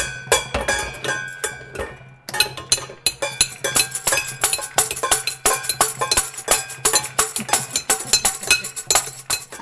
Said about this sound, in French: Alors là, mon fils dit pâté pour taper. Parce que c'est l'heure de taper. Ils prennent tous les deux une casserole et euh, des trucs de dinette et ils vont à la fenêtre.